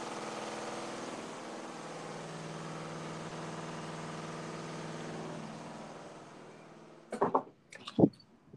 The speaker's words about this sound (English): yeah, it sounds like an earthquake. yeah, I heard it when you opened the door, but it's like okay right now. So yeah, because but you can't like if you stand next to the washing machine, like the room is vibrating.